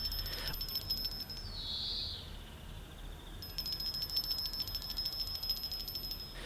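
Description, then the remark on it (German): A high-pitched electric bell on a bell wire running from a kitchen through a garden to a lighthouse rings insistently in a rapid metallic trill, pausing briefly before ringing again for several seconds. No voices are heard. “Und wie Max da auf seinem Leuchtturm der Kinderrechte sitzt und in den Garten schaut, klingelt es plötzlich an der Klingelleitung, die von der Küche durch den Garten zu Max Leuchtturm führt.”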